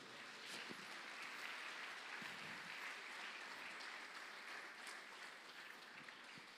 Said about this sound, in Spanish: Dele palmas fuerte al Señor, hombre.